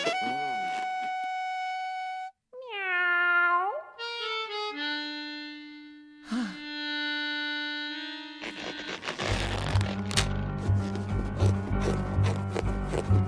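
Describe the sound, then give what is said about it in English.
In a read-aloud story, a voice imitates a cat's meow for the dog George, who meows when asked to bark: a drawn-out, bending cry with a few other sung, tonal vocal sounds around it, followed by a burst of busy, clattering noise near the end. “Please bark, George. Meow.”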